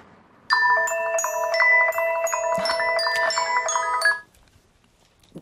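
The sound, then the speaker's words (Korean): A melodic phone ringtone plays loudly for about three and a half seconds, a bright repeating electronic tune of stepped tones, then cuts off into quiet. “그때 이숙 씨의 전화벨이 울렸어.”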